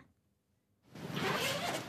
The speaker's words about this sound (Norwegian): Glidelåser åpnes på store trillekofferter, og tunge dokumentpermer settes på plass i hyllene.